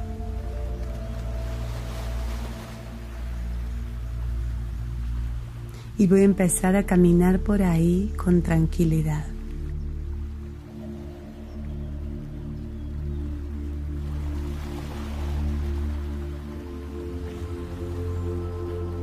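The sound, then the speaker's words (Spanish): Soft sea waves wash in and out on the shore in slow, rhythmic swells over a steady low surf rumble, with a man speaking calmly partway through. “puedo escuchar el oleaje armonioso y rítmico del mar.”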